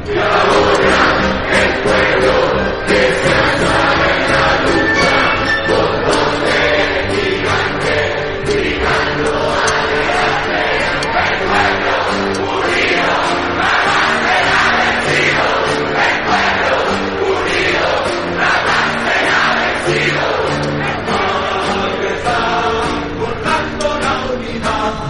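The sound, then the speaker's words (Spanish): A huge rally crowd in the centre of Santiago sings the Popular Unity anthem together in unison, a loud, dense wall of voices with a steady melodic swell that holds for the full stretch without pause. “ahora están cantando eh, el himno, ¿cierto?, de la Unidad Popular”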